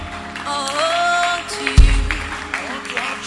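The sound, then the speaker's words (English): Scattered clapping from a church audience during an altar call as someone comes forward to receive Jesus, a loose patter of hand claps rising under a raised voice, with a heavy low thump partway through and the applause continuing behind the speech. “Clap for him.”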